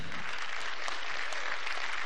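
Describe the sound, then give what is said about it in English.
Sustained audience applause, a dense crackle of many hands clapping at a steady level with no voices standing out, filling the whole two seconds. “normally I wouldn't say clap, but I'll just do like Bones today.”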